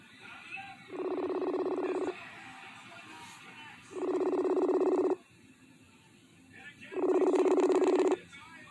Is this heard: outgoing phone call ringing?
yes